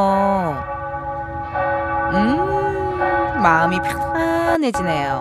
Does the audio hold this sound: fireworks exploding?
no